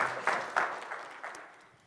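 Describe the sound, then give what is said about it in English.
A crowd breaks into applause for a woman coming up to share her testimony, a dense wash of many hands clapping at once, with a few sharper bursts that gradually thin and fade over under two seconds. “So, can we give her a round of applause as she comes and shares for us today?”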